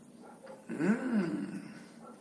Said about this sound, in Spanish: Ah, ya se ha callado. No, que se escuchaba la perra de mi vecina. no mi vecina, la perra de la vecina.